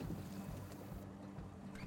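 A dive boat's engine drones steadily as it leaves the port of Union Hall, also known as Glandore, heading out to a shipwreck site; a low rumbling hum with a hiss of wind and water over it, continuous and unbroken with no one speaking.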